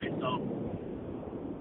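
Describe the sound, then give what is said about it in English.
Steady, low rumbling road noise from a car driving home on an 80 mile per hour highway, continuous and muffled through a phone line, with a voice briefly speaking over it. “Caller, the uh, sound of the uh, road beneath his wheels.”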